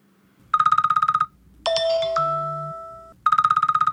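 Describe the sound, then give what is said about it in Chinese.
An alarm clock rings in two short bursts of rapid, high-pitched trilling pulses, separated by a single sustained, ringing bell-like tone that slowly fades. There is no talking. “隔天早上，坐在客厅的狗狗爸爸听到房间传来闹钟的声音。”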